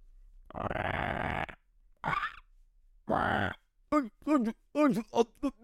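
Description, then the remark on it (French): A person imitates zombie groans with a long rasping moan, a shorter growl, another drawn-out groan, then a quick series of guttural, wavering grunts, loud, with no words. “Là, j'imitais les zombies.”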